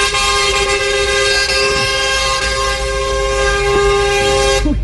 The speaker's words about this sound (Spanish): usted escuchaba de fondo los pitos. A esta hora ese es el sonido que eh, se escucha en toda la avenida calle 13 con Ciudad de Cali. En este punto está la marcha o más bien la caravana de vehículos eh, de carga